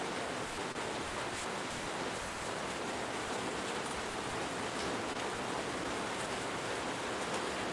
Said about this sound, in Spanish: Sí, perdonen, pero está lloviendo bastante fuerte y no tengo ningún control.